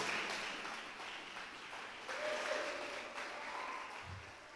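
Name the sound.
audience applauding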